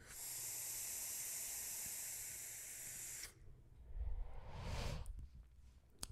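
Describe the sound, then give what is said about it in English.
A long, steady hiss of vapor being drawn from a vape tank and pushed out, followed by a softer breathy exhale puff and a brief rustle, with no one talking. “Just vape my own tank in your honor.”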